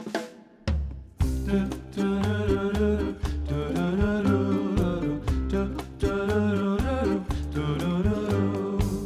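An old-fashioned Icelandic dance song from a 1956 dance-song competition, the title track of a 2020 album, starts after a brief pause, with a male singer over a steady, bouncy accompaniment of bass and chords that keeps a regular beat throughout.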